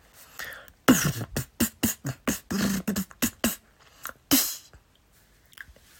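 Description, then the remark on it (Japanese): Freestyle beatboxing during a live performance: a loud, quick run of mouth-made kicks and sharp snare-like clicks in a driving rhythm, a louder accent near the end, then a few faint pops as it trails off. “ビートボックスパフォーマンス04 ライブ”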